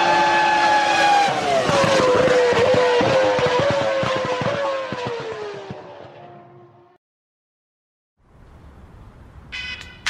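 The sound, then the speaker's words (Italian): A short theme jingle for the Radio Chuck motorsport show Rosso Motori On Air, built on loud, roaring racing-car engines, with a high engine whine sliding slightly downward, then a brief silence and a quieter tail ending in a sharp bright burst. “Ma prima sigla e poi una canzone”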